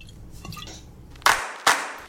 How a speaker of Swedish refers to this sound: Och nu ska jag ta en klunk öl för att fira det. Skål!